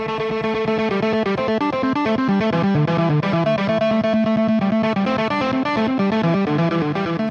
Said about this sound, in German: Ja, das sind keine zwei Gitarren, das ist der Harmonizer dieses kleinen roten legendären Kästchens, das viele Gitarristen mittlerweile auf der Bühne haben.